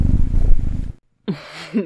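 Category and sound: animal, kitten purring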